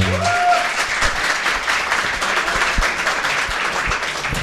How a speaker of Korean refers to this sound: 라이더 재킷을 네. 선물로 한 벌 드릴 예정입니다. 어, 박수 한 번 주세요.